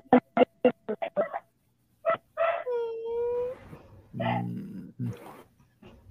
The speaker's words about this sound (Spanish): Miau.